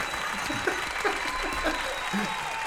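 A steady patter of applause from a group fills the whole stretch, dense and even with no breaks, at moderate volume.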